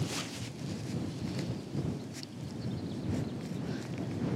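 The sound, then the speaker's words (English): Wind gusts outside in a steady, low rushing roar that swells and eases, with faint airy whistling on top; fairly quiet and continuous, with no one speaking. “I don't know if you can hear that wind, but it is whistling.”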